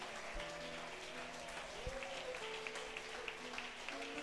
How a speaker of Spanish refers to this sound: Dele ese aplauso al Rey de la Gloria, dele ese aplauso.